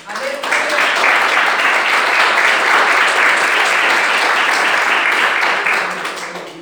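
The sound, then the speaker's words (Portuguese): An audience applauds steadily in worship of the Lord Jesus for several seconds, a dense, loud wash of many hands clapping that swells quickly, holds evenly, then tapers slightly at the end, with faint voices mixed in. “Eu agradeço a, a oportunidade e as palmas que adoram ao Senhor Jesus.”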